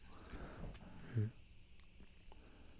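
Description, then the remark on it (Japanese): Crickets chirp steadily in a thin, high, continuous trill that runs through the whole stretch, fairly quiet, with a few soft low thumps and rustles underneath. “コオロギの声がね、また恐怖を増幅させてるような、素晴らしい恐怖談義だったなって思います。”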